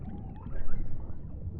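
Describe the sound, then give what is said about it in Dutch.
Muffled underwater rushing with a steady low churn, soft bubbly gurgles and faint high glints drifting through, swelling slightly midway; continuous, no voices. Water churned by a swimmer's kicking feet, with air bubbles escaping from the swimmer's mouth. “Ik hoor het water ruisen als ik met mijn voeten trappel en de belletjes uit mijn mond ontsnappen.”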